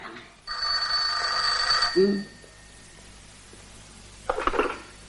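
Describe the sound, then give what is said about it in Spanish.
A telephone rings once in a steady, bright electronic tone lasting about a second and a half, followed by a soft low thump and, a little later, a brief muffled burst of sound. “Señorito Paco, le llaman al teléfono.”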